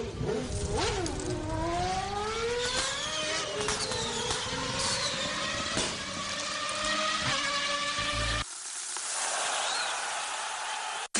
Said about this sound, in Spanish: Cuando quieras, Alfredo, arrancamos ese coche de Escuela Santiago.